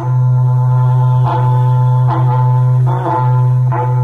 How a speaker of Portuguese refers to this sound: você ouviu agora há pouco o berrante do, do …, né? Da, da Brava, é o chamado da Brava berrante, ó, escuta aí